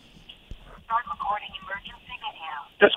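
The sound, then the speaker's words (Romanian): A car dashboard camera's recorded voice prompt speaks for a couple of seconds, thin and tinny like a small speaker, ending with a brief louder burst. “A, camera mea. Vorbesc Aha. singură, camera din mașină.”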